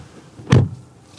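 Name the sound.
car door being closed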